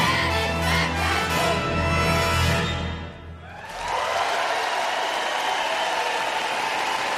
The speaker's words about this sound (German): Großartig. Einen großen Applaus für den Kinderchor von der Singakademie Potsdam.